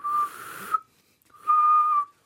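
Two airy, breathy whistles made with the mouth while drawing breath in, each a steady mid-pitched tone lasting about half a second, separated by a short pause, fairly loud.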